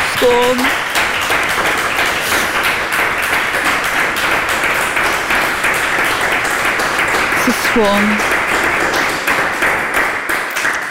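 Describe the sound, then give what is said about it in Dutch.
Steady, dense applause from a large crowd in a rotunda fills the whole stretch, with a couple of brief whistles cutting through near the start and again partway in. “Applaus in de rotonde.”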